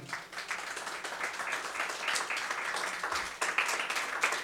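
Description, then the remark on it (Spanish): A church audience claps hands together in dense, sustained applause offered to the Lord, many overlapping claps at a steady moderate loudness for several seconds, with no voices standing out. “De la ofrenda de palmas al Señor con todo su corazón, hermano.”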